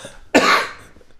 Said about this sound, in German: so, ich musste kurz unterbrechen. Äh, leichter Hustenanfall beendet.